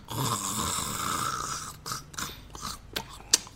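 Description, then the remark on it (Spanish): A guard sleeping on the ground between two trees snores: a long, rasping snore rattles for about two seconds, followed by a few shorter snorts and breathy catches, fairly loud with no talking. “del guardia que sigue en su sueño de en su sueño veraniego tirado entre dos árboles ya así valiéndole madres acostado así como Patricio Estrella en el, en el piso”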